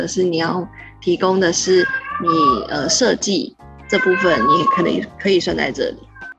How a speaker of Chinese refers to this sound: 好，插播一下，就是最近的录音，就是背景可能会听到猫咪的叫声，那是我们家欧里的声音，因为它在练习发声，或者是它想要吸引我的注意，所以就大家听听听听它的声音，它的声音很可爱，但它自己不觉得。